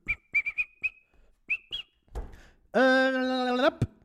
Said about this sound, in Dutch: Ik moet fluiten van mijn dokter als ik opgewonden ben.